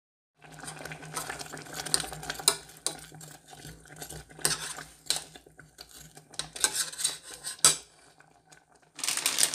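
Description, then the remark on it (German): Scraping and rustling of a spoon stirring spinach in a cooking pot, with irregular bursts of metallic scraping over a low steady hum, no voices. “Spinat umgerührt”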